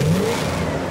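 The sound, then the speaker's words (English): A car engine revs hard and accelerates, its pitch sweeping upward in a loud, continuous roar with no talking over it. “Cars that sound like this.”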